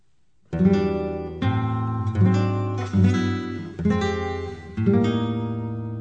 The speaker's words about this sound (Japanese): あのメロディー僕美しいなと思ってて、うん、今回それでちょっと作ってみたんですよ素晴らしいちょっとかけてみますので聞いてみてください